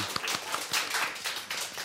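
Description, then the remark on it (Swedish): A short burst of audience applause for the programme's technician: many hands clapping at once in a dense, steady patter of sharp claps, fairly loud and with no voices over it. “En applåd för Gustav!”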